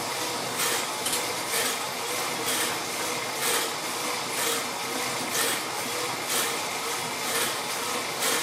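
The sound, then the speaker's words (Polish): A steady mechanical whir from a pedal-driven generator charging a power station, swelling in regular rhythmic surges with each pedal stroke, its resistance varying as the station's current draw changes, fairly loud, with no voices. “I słychać też jak, różnie, jak, jak różny opór stawia mi ta prądnica.”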